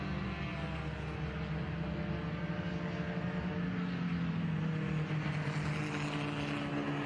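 A safety car's engine drones steadily as it drives along the race track under yellow flags, loud, its pitch rising slightly near the end, with no voices present.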